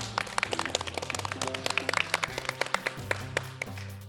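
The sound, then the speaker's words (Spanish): A small group of invited guests claps for about four seconds at the end of a program, the sharp irregular hand claps overlapping into a modest burst of applause over a low steady tonal hum, with no voices. “Un aplauso, invitados, sí, por favor.”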